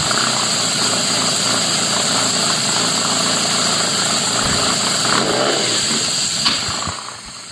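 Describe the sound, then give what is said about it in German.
A loud, steady car engine roars with a buzzing, droning tone as the car is driven out onto the wash bay, the rumble shifting midway and easing off at the very end. No one speaks. “Also ich habe äh, mein Handy hingestellt, als ich ihn raus auf den Waschplatz gefahren habe.”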